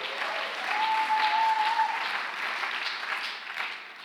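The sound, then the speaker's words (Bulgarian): An audience claps steadily as applause meant for God, a dense wash of many hands that holds at a fairly loud, even level for several seconds before easing slightly at the end. “О, ако ръкопляскаш, ръкопляскай като че е за Бог, а не за мен защото аз нямам нужда от твоето ръкопляскане и той няма нужда, но ти имаш нужда да освободиш твоята вяра и да му дадеш слава за това, че е бил верен в твоя живот.”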